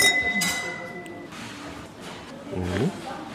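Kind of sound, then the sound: household object, wine glasses clinking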